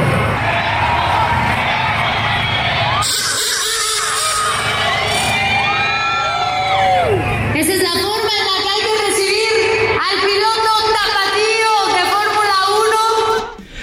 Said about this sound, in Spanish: La gente apoyando aproximadamente unas 3.000, eh, 4.000 personas, apoyando obviamente a Checo Pérez.